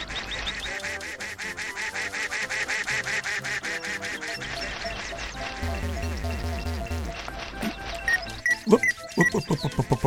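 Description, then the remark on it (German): A duck in an audio game quacks rapidly and continuously, loud, its harsh nasal calls tumbling over one another before breaking into a few sharper, separate quacks near the end. “Gut, laufen wir mal der Ente hinterher.”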